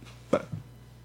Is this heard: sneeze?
yes